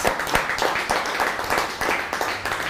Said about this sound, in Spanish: Ahora sí, un fuerte aplauso a todas las naciones. Fuerte aplauso a todas las naciones.